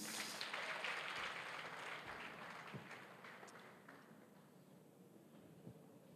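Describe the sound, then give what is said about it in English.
A church audience claps together when asked during a service, a dense crackling wash of many hands that starts loud and gradually thins out and softens over six seconds, with no voices over it. “Please clap your hands.”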